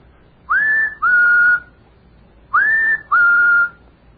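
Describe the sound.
A person whistles an imitation of a bird call: two short rising-then-steady notes, a pause, then the same two-note pattern again, clear, with no talking.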